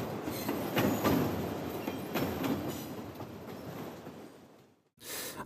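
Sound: train running on rails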